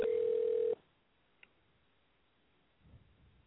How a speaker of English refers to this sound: Let me call my man real quick, see if he's gonna answer the phone. Let's see what's going on.